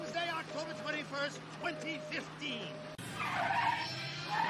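A car's tires squeal in a series of rising and falling whines over a steady engine hum, then a loud, rough skid of scraping noise takes over.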